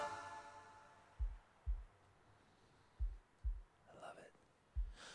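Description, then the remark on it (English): A heartbeat sound effect thumps in low, muffled double beats, three paired pulses spaced about a second apart, after a fading tonal hum; a brief faint murmur slips in near the end. “That heartbeat.”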